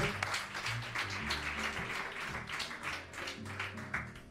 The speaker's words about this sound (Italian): ragazzi, facciamogli un applauso.